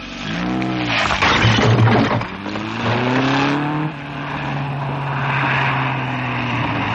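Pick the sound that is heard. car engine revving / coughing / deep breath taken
car engine revving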